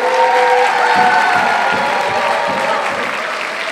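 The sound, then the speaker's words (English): A crowd applauds loudly and steadily for two people being thanked for serving at the gathering. The clapping is dense, with a few cheers mixed in, sustained for several seconds and tapering slightly at the end. “Big clap, big clap.”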